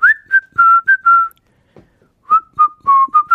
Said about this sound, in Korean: 휘파람 소리 오라버니가 내는 건가요? 휘파람 잘 부세요 하셨네요.